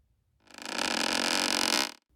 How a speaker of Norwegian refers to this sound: det var det perfekte knirk, altså. Herregud.